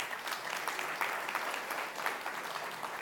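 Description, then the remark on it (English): A crowd applauds nearly $1.3 million given towards a building project, a dense patter of many hands clapping at a fairly even, moderate loudness throughout, with no voices rising above it. “So you can applaud that.”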